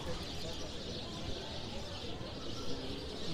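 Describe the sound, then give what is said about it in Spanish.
Birds chirp and coo overhead in a steady outdoor chorus, fairly faint and continuous over a broad background hiss, with no single call standing out. “Pajaritos suenan.”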